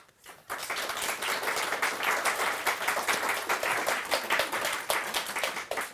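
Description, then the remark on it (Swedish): A studio audience bursts into applause for the day's third-prize winner, Rangsby school, with 6 points, after a brief quiet start: dense rapid clapping with some cheering mixed in, holding steady and loud for several seconds. “Vi har ingen decibelmätare här i studion, men vi vill ändå höra ett jubel här inför eh, Dagens tredjepristagare som är Rangsby skola med 6 poäng.”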